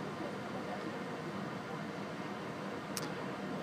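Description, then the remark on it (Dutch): A steady, even hiss of blowing air from an air conditioner, constant and unbroken for the whole stretch, with one brief faint click near the end. “er is in mijn uh, audiobeeld, audiolandschap, een geblaas aanwezig van een airco of ik weet niet wat.”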